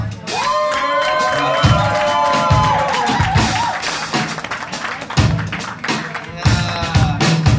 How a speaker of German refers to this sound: Aber der Typ ist die, die gute Fee des heutigen Abends. Der hat mir auch eben schon das Bier aufgemacht. So ein Applaus für ihn hier.